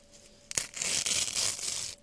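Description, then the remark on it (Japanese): A sharp snap followed by about a second and a half of steady, hissy ripping as something is torn into pieces by hand, to be soaked for ten minutes, fairly loud, with no talking over it. “ちぎって10分浸しつけて”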